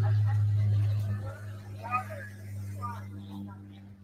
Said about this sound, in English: This is how we get our information now in West Maui. Announcements from planes coming overhead.